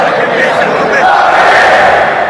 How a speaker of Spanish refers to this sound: 28 lo celebra todo el estadio. Se pone de pie todo el público y el aliento crece. Banfield está ganando el partido.